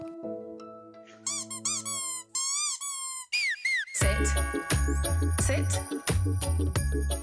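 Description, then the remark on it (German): A festive Christmas song made specifically for dogs, developed with the support of veterinarians and animal behaviour researchers: held organ-like notes, then bright, repeated squeaky-toy chirps sliding up and down, before a full band kicks in loud with bass and jingling accompaniment. “Falls Sie sich schon immer mal gefragt haben, wie ein Weihnachtssong klingt, der speziell für Hunde entwickelt wurde, Sie haben soeben das Ergebnis gehört.”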